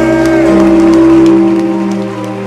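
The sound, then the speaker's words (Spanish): A seated audience applauds Jesus Christ the King, a steady wash of many hands clapping mixed with sustained, droning keyboard chords, loud throughout and easing off slightly toward the end. “Y así sentadito, dele su mejor aplauso a Jesucristo el Rey.”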